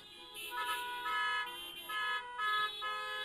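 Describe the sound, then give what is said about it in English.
Several car horns blare together in long, overlapping honks that swell and fade in bursts, a loud chorus of cars honking with no voices in between. “Honk your horns.”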